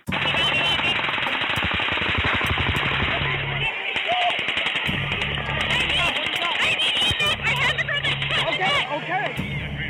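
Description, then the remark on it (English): Rapid, sustained bursts of automatic gunfire like machine guns at the Route 91 Harvest festival in Las Vegas crackle loudly and almost continuously, with brief pauses between volleys and indistinct voices mixed into the noisy background. “We just hear the gunshots. Okay. You can hear okay, just sounds stay- like machine guns.”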